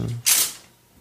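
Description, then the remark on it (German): A door is opened: a brief low rumble, then a short, bright scraping burst of the latch and swing that fades quickly into quiet. “Weil solange du noch sitzt, kannst du quasi noch schnell die Tür aufmachen.”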